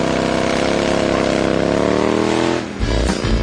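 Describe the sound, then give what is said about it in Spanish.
A motorcycle engine revs steadily with a strong harmonic drone, then drops back near the end to a lower, throbbing idle. “Si tienes una moto, con esta noticia rodarás cualquier cuesta, incluso la de enero.”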